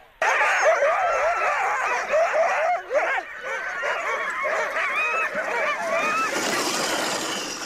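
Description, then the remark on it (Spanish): A large pack of sled dogs in Finland in winter, nervous and restless while waiting to set off, barks, yelps and howls all at once in an excited, overlapping chorus that never lets up, loud throughout. “Estos son los perros esperando a salir, nerviosos, inquietos”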